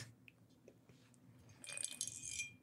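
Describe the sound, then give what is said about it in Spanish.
A small metal screw drops off a microphone and rattles, giving a bright, ringing clatter of quick metallic clinks that lasts about a second after a quiet stretch with low rumble. “De ahorita A ver, los que no están viendo, algo se cayó el micrófono y cayó. el- tornillo cayó.”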